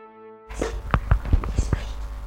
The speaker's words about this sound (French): L'esprit s'exécute et frappe successivement le nombre de coups correspondant au numéro des trois chevaux gagnants.